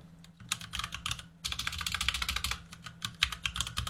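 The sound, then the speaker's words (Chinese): Rapid, steady clatter of typing on a computer keyboard, dense keystrokes with a brief pause early on, over a faint low hum; no one speaks. “你他妈就打字打。”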